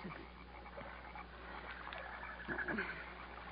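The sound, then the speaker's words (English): A dense, steady wash of jungle night sounds by a river: a low watery murmur under a chorus of frog-like croaks and insect chirps, with a brief high trill standing out near the end. “It's a river. Jungle sounds.”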